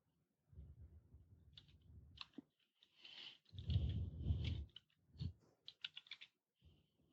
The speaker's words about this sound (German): Tippen, tippen, tippen.